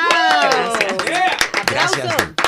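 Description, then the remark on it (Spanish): A short burst of studio applause for a guest who is a dispatcher for the City of Miami Fire Department, scattered claps mixed with excited voices exclaiming over the clapping for a couple of seconds. “Un aplauso para ella.”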